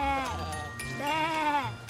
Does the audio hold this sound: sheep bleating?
yes